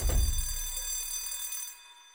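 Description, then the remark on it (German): A school bell rings with a bright, sustained metallic clang that starts abruptly, holds steady for almost two seconds, then fades away. No voices are heard. “Wo es läutet, ruft der Oberkäng: Hey, Tommy Mütze!”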